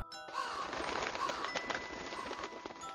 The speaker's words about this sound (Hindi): gate खुलते ही अंदर पेड़ों पे बैठे कौवे यहां वहां उड़ने लगे